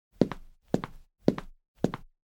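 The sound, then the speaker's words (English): Four evenly paced stock library footsteps land, each a solid heel-then-toe thud with a short scuff, separated by brief silences and no voices. “I think that the confusion with Foley is like, why don't you just go to a library, find footsteps, and then kind of sync them in there?”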